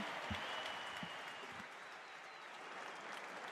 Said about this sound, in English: applause for these players. Good luck, both teams.